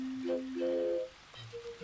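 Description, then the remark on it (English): Several sustained, hollow pitched tones played by a musician on three bottles filled with different amounts of water, one after another at different pitches, each ringing briefly at moderate volume with no talking. “He has three different bottles filled with different amounts of liquid of water.”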